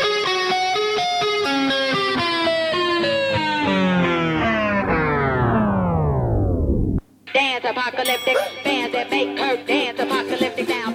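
A thick, buzzing tone slides steadily downward in pitch like a slowing record, cuts out briefly, then a loud, upbeat pop song bursts in with dense instrumentation and vocals.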